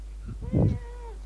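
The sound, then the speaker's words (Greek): A single drawn-out cat meow, clear, rising then trailing off, with a low steady hum underneath and no talking. “Ο γάτος σου έφαγε σουβλάκι, έφαγε σουβλάκι”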